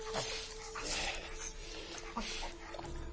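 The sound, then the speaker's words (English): A dog whimpers and lets out a few short, high yips in quick bursts, fairly soft, over a steady background hum. “This is the world's first dog to have color vision.”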